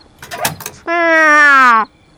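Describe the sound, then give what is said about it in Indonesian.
The door of a large toy cupboard in a playroom creaks open in one loud, drawn-out squeal lasting about a second, slightly falling in pitch, after a few brief rustling knocks. “Ternyata bunyi derit itu berasal dari pintu lemari besar tempat aneka mainan milik Keisha.”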